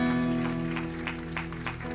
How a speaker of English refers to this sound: If you are hearing me, can you give the Lord a big clap of praise?